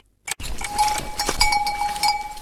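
A herd of dairy goats moving about, with bells clinking and ringing steadily over a rustling, shuffling background; no one speaks.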